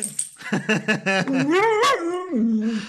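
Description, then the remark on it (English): A puppy yaps in a quick run of high, sharp barks, then breaks into long, wavering whimpers that rise and fall. Fairly loud, with no talking over it. “Puppy dog. Puppy dog.”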